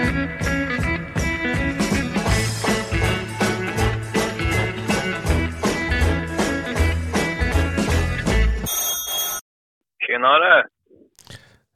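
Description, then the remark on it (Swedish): After a stretch of loud music, a single short ringing tone sounds from an outgoing phone call made to hear a man's views on predator hunting, followed by a pause and a brief muffled voice over the line. “nu ska vi ringa … här och få höra vad han har att säga om rovdjursjakt”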